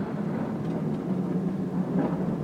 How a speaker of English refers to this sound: Just a moment. The ion storm has interrupted my processors. Just a moment.